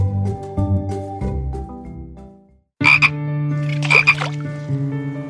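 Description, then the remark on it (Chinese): Several frogs in a small pond croak in loud, overlapping bursts, with a brief pause in the middle before a second chorus of raspy, rhythmic croaks resumes. No one speaks. “它除了捕捉蚊子和飞虫，就是和同伴一起呱呱呱、呱呱呱的叫。”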